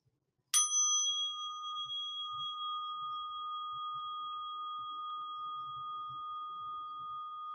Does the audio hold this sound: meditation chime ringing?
yes